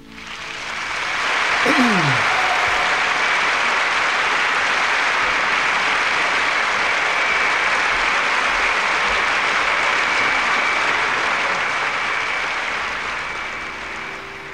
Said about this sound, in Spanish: vamos a darle un caluroso aplauso al inicio de nuestro programa.